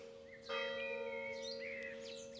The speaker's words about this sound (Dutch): Die slaat de klok, hè?